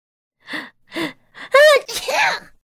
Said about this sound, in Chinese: 最后还打了一个喷嚏